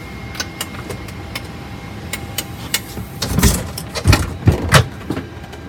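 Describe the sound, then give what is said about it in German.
A heavy aircraft cabin door being closed: a run of light mechanical clicks, then several loud clunks and thuds as it latches. No one speaks. “Jetzt haben wir die Tür zugemacht und jetzt warte ich auf das Kommando.”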